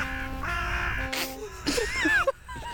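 Crows cawing, several harsh, rasping calls in quick succession, loud, over a steady background hum.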